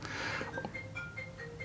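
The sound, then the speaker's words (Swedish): A mobile phone alarm ringtone plays a simple, repeating electronic melody of short, bright tones over a soft background hiss, fairly quiet, with no one talking. “Det här är min alarmsignal på morgonen.”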